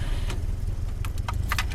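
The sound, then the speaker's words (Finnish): A Lada car engine, started in frosty weather after standing since Saturday, runs with a steady, low, throbbing rumble, a few brief ticking clicks scattered over it; no one speaks. “Lähteekö Lada käyntiin pakkasella?”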